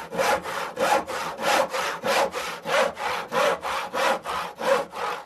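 A hand saw rasps steadily through wood in a quick back-and-forth rhythm, about a dozen even strokes with no voices.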